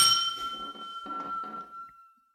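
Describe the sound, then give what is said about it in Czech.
A single bright clink of glasses in a toast to future cooperation between Brno and Poznań, clear, its high ringing tone lingering and slowly fading over about two seconds above a faint low murmur. “Na zdraví.”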